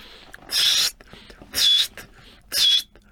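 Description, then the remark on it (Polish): A person gives three short, breathy whistles, evenly spaced about a second apart. Each is a high, airy blast with a thin tone inside it, and there is quiet between them. “Ja będę gwizdał.”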